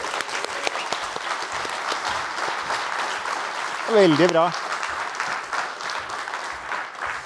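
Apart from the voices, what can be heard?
audience applause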